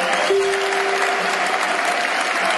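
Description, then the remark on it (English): A crowd of Lions football fans applauding as a player gives his shirt to a little boy in the crowd, dense, steady clapping filling the whole clip at an even loudness, with a brief sustained tone sounding early on beneath it. “Applause from the, from the Lions fans there.”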